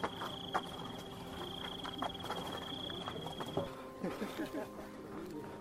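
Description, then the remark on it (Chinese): Cicadas chirping in a steady, high-pitched buzz in a relatively open suburban area about three kilometres into a running race at Puji, with runners passing; the buzz runs for a few seconds and then cuts off, with scattered light taps and a few short bird-like chirps around it. “偶尔有一两张车开过，其他时间你听到的就是蝉的鸣叫和跑步者穿过的声音。”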